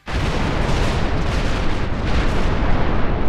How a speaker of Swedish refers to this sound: För Musk är det ingen katastrof om prototypens landning slutar med ett enormt magplask och en väldig eldboll.